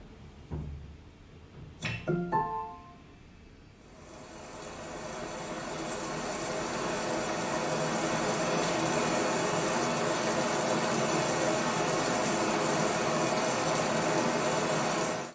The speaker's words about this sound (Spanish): Alexa, pon sonidos de la lluvia.